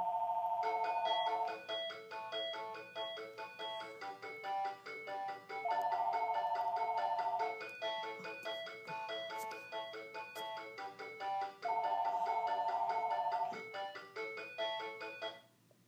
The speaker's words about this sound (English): Okay, I'm so sorry we were interrupted by a phone ring in the background.